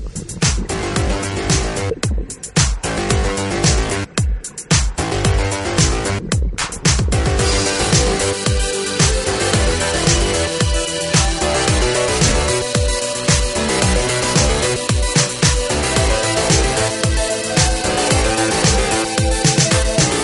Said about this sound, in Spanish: Oye, ¿vamos a escuchar música,